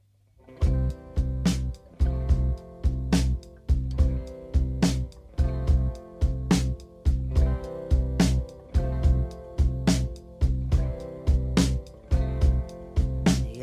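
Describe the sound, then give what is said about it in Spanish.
A rock ballad plays at a steady, moderate tempo, with sustained guitar chords and a regular drum beat marked by crisp snare and cymbal hits. No one speaks over the music. “está algo triste la letra muchachos, pero pues bueno, disfrútenla, es una balada muy interesante de,”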